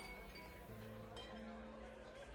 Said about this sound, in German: Die Stimmen werden lauter, die Gespräche werden ausgelassener. Ein paar singen einfach so irgendwelche Lieder, ein paar äh, stimmen mit ein, dann schaukeln sie ein bisschen rum und dann ähm, ist es schon ziemlich laut geworden jetzt in der Taverne.